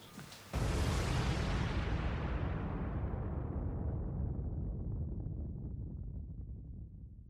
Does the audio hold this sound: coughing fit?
no